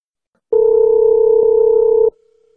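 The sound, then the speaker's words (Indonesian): A loud, steady telephone tone hums for about a second and a half, a single unbroken electronic drone that cuts off abruptly, with no voices. “Ya udah lu telepon. Oke, okay, gue telepon.”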